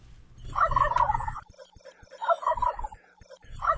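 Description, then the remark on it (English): A wild turkey gobbles in three loud, rapid rattling bursts spaced about a second apart, with brief quiet gaps and low background rumble between calls. “Wild turkeys are native to North America and were imported to England by merchants from Turkey in the 1500s which is apparently how they got their name.”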